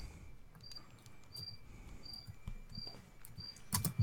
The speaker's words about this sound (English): You know, I need some crickets.